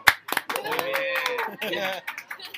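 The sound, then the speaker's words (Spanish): A small group of supporters claps in quick, scattered bursts while voices whoop and cheer over them, fairly lively, lasting a couple of seconds. “La barra ahí, la barra que grita,”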